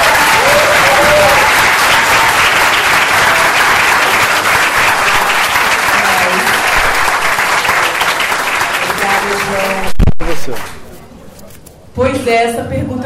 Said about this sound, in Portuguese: Palmas para o João Paulo Cunha.